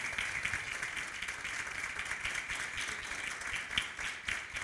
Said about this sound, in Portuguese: Pode aplaudir ao Senhor, querido. Zerinho.